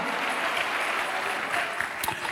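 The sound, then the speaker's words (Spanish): An audience applauds steadily, a dense wash of many hands clapping at an even loudness throughout, with no pauses or distinct individual claps standing out. “Dale un aplauso, póngase de pie, amado hermano.”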